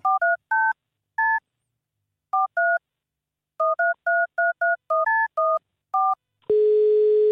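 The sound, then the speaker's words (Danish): A phone number is punched in on a keypad to place a call: a quick, irregular string of short two-tone beeps, loud, followed by a steady continuous tone at the end. No one speaks. “Ringer vi ham lige op her?”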